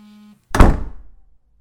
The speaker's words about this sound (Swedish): Jag tittade inte tillbaka. Jag slog igen dörren och låste den.